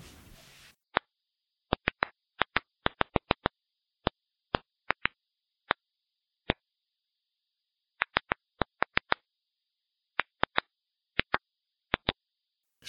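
Tomato plant ultrasonic clicks converted to audible sound: about thirty sharp, dry clicks at irregular intervals, sometimes clustered, with near-total silence between them after a brief hiss at the start.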